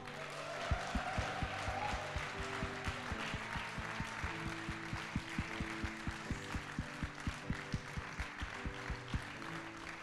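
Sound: audience applauding and cheering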